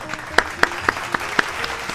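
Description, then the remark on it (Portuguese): A short, modest round of applause for the game master: sharp claps repeat at a steady, fairly quick rhythm, like a small group clapping over faint background noise. “Acho que isso merece uma palma, uma salva de palmas pro mestre, que agora acertou, né?”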